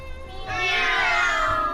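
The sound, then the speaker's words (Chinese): Students in a class imitate a cat's meow when the teacher calls out 'cat': one long, drawn-out, fairly loud meow with a rising then falling pitch, held for about a second and sounding like several children calling together. “？Bird, dog, bull, cat,”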